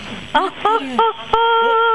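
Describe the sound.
A voice calls out in short bursts, then holds a long steady tone, each sound ringing and lingering as it echoes around the men's bath of a public bathhouse, whose ceiling is about as high as two storeys of an ordinary house.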